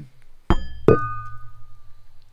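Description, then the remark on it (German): Two drinking glasses clink together twice in quick succession in a toast, fairly loud, and the second strike leaves a clear, bell-like ring that slowly fades amid quiet. “Dein Glas klingt so schön.”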